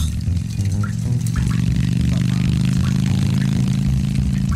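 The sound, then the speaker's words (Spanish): A loud, steady motorcycle engine rumble with a deep, throbbing tone, the motorcycle approaching fast through a tunnel with rails, holding strong for the whole few seconds without fading in or out. “¿Por aquí va a pasar esa moto?”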